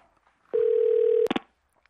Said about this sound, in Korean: 그래서 공중전화를 찾아 집에 전화를 했죠. 누구보다 저를 아껴주시는 어머니가 받길 바라면서요.